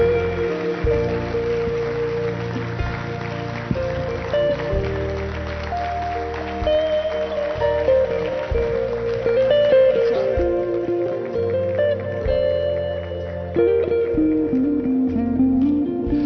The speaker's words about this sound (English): Come on, let's give God a big hand clap in this place. Come on.